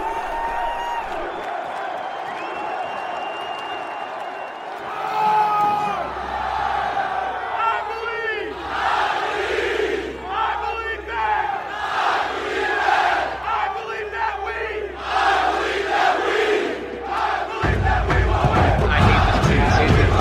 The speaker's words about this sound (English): This chant sucks. let's be real. Bro, come on. This chant has been abused. I've heard it like at least like twenty times.